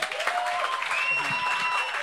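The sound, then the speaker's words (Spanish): A church audience applauds to welcome a visiting group from different US cities with Christ in Youth, with steady, dense clapping that holds at an even level for the full two seconds, with faint whistles or cheers rising above the noise. “No todos lo ven, pero denle un aplauso”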